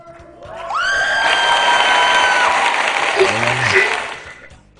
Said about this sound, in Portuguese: oh, acho que os editores mereciam uma salva de palmas agora, hein? Que eles fazem mágica salve é isso aí. Não, não, não, não precisa bater palma, gente. Editor, coloca a salva de palmas aqui pra gente.